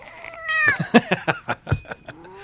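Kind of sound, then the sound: animal, cat meowing angrily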